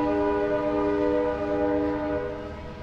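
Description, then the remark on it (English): A passenger train, the San Jose train number 525 on a California service, pulls into a station with headlights blazing, its horn blaring a steady, loud multi-tone chord over a low rumble, easing slightly toward the end. No one speaks. “The train is coming into the station now with its headlights blazing.”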